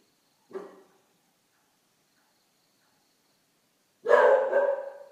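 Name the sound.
dog barking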